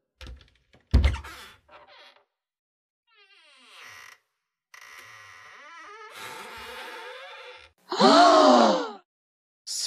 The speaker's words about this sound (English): Miss Red points out the sign above the doorknob that says, Push. The door creaks open.